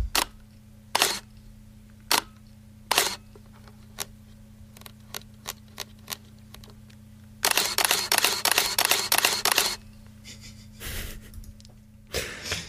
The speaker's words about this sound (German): Das kommt von Florian und das war eine Minolta Dynax 800 SI